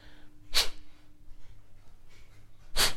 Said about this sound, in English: Imagine something is stuck in your nose and you're blowing it out from the nose. Using your toilet muscles and your lower abdomen muscles to breathe out through your nose.